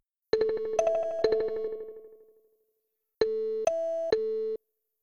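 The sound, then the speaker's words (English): A short three-note electronic tone phrase plays twice with no voices, as a before-and-after echo effect example. The first pass rings out in a fading echo tail, and after a pause the second, with surround sound and identical echo and feedback values, sustains evenly before cutting off abruptly. “here's a before and after example of it just on an echo. Um, the second one has surround sound and feels a bit more spacious”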